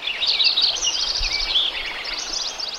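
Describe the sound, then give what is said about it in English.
A dense dawn-style chorus of many birds singing at once in a forest in spring, at a site by Lincoln Meadow recorded before selective logging, overlapping high chirps and trills filling the air steadily, with a soft low rumble underneath and no voices. “I said, Any chance uh, I can go out and record before you do the selective logging at this site and see what the density and diversity of bird life is in the spring?”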